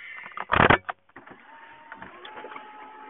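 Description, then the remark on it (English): A short, loud electric whirr of a car's power window motor running for about half a second, followed by a quieter cabin hum with faint rumbling. “Let me go ahead and open the windows.”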